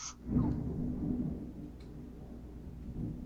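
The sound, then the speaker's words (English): A low, heavy rumble of thunder, with lightning, rolls in from outside a window, swelling early then lingering as a muffled growl that slowly fades. “That was thunder and lightning outside my window.”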